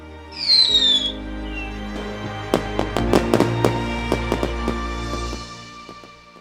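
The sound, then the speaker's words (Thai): A whistling rocket climbs at the start, followed by a flurry of sharp fireworks bursts and crackles over a low steady rumble, some bangs loud, others softer. “ไปดูดอกไม้ไฟกันไหมฮะ”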